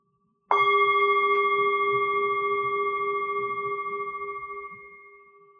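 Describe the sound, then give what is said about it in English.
A small gong is struck once with a stick, sharply, then rings on with a clear, steady metallic tone that slowly fades over several seconds. No one speaks. “So, for an example of tendrel, um, he uses the example of a bell, but I have a little gong here.”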